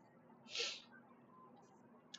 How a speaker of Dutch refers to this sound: Even een slok koffie uit mijn nieuwe thermosbeker.